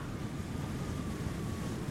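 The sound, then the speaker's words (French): A steady, loud roar of wind and rushing water surrounds a boat out at sea, with deep rumbling underneath and no pauses, as an enormous storm shakes the boat and batters the hull. “Une énorme tempête secoue le bateau.”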